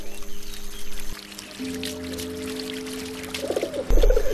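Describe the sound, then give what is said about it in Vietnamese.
Water flows and pours steadily through a series of ornamental pools at the Alhambra, where dirt sinks to the bottom and the water is gradually filtered. It is a continuous wash with a low steady hum beneath, growing briefly louder and splashier near the end; no one speaks. “Trong khi nước tiếp tục chảy, vì vậy nước được lọc dần, như trong một nhà máy xử lý nước hiện đại.”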